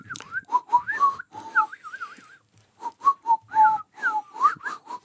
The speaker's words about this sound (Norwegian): Nei, jeg kan ikke plystre. Hør nå, nå skal jeg prøve å plystre.